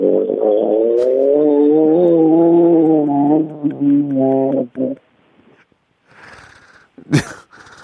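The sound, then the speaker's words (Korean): A 68-year-old person imitates a revving motorcycle with a buzzy, wavering vocal drone that rises and dips for about five seconds, then trails into quiet rustling and a brief sharp burst near the end. “아, 오토바이 좀 달려볼까 하고요.”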